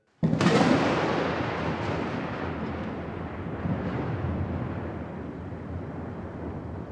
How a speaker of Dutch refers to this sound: Toen ik op kantoor aangekomen was, had de regenbui zich omgeschoold tot een stevige storm. En sloegen de takken van de wilgen op de parking luid tegen de zijkant van het aluminium buitenwerk van het gebouw.